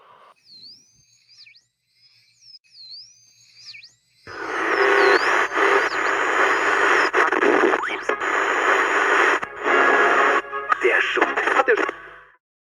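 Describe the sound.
A radio transmission: faint warbling whistles at first, then loud, dense static with a garbled voice buried in it for several seconds before it cuts off abruptly.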